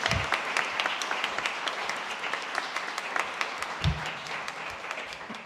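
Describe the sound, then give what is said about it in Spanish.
An audience applauds Rafaela Pimentel of Territorio Doméstico at a book event, with many overlapping claps forming a dense, even wash of sound that holds at a fairly constant level throughout, with no one speaking. “Y luego, por último, tenemos a Rafaela Pimentel, que es de Territorio Doméstico y que además eh, bueno, han escrito el, epílogo del, libro, que a mí me parece como casi lo mejor que hay en esas páginas, así que un aplauso también.”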